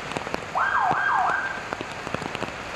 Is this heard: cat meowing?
no